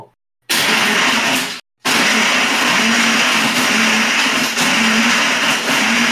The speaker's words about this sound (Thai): ครับถือเป็นการรีวิวเครื่องปั่นไปในตัวนะครับผมสำหรับเครื่องปั่นยี่ห้อเอ่อฟิลิปนะครับ รุ่น 3,000 อะไรสักอย่าง นะฮะ